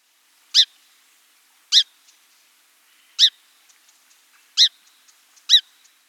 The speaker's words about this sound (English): Okay, let's put all of those together. First, the song sparrow chip,